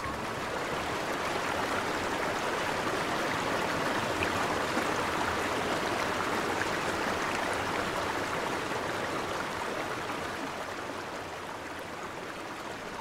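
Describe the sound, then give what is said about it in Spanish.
Steady rushing of a flowing river, a dense continuous wash of water with a bright, textured hiss, constant throughout with no voices. “Estando allí, en su lugar secreto del río, el mundo parecía distante.”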